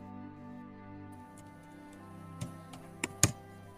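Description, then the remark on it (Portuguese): A handful of hard, sharp keystrokes hammer a computer keyboard in an irregular burst near the end, the last one loudest, over a low steady background hum with no talking. “Mãe, quase quebrou o teclado.”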